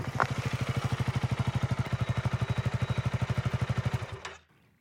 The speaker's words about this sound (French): il prend un café et il enfourche sa moto pour retrouver la maison où la veille il avait raccompagné la jeune fille.